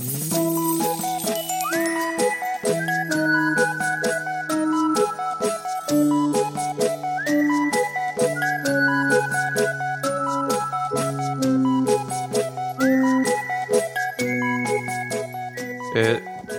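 A bright, upbeat jingle with tinkling melodic notes and sustained chords, repeating a short phrase about every five seconds at a steady, loud level with no voices.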